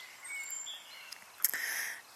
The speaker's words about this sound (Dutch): En ik ben daar zelf buiten voor gaan zitten. dus ik zit hier tussen de vogeltjes. En uh, je zult die waarschijnlijk wel horen. Geniet ervan mee.